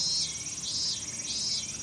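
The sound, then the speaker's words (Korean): Three people, a writer, a producer and a host, vocally imitate cicadas: shrill cicada-like chirping swells and fades in three steady, rhythmic pulses, fairly loud, with no talking over it. “작가와 PD 그리고 제가 셋이서 함께 매미 소리 한번 내보도록 하겠습니다.”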